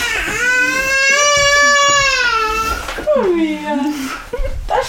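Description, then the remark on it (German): A small child cries loudly after falling off a chair, one long sustained wail followed by a shorter, wavering sob that breaks up toward the end. “ist vom Stuhl gefallen.”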